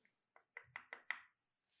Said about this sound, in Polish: Poczekaj, też chcę puknąć.